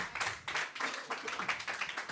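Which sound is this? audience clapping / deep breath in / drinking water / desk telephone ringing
audience clapping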